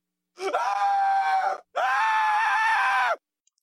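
A person lets out two long, loud screams back to back, each sustained for over a second with a brief gap between them, sounding strained.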